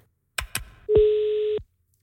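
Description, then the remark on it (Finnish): Telephone dialing tones: two quick, sharp clicks, then one steady, clear electronic tone held for about two-thirds of a second before cutting off. Fairly loud, with no voices. “Soitetaan ja kysytään.”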